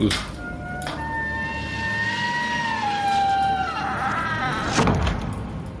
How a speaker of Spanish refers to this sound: Oh, no es nada. No hay nadie en la habitación contigua. Seguramente la puerta se abrió con el viento.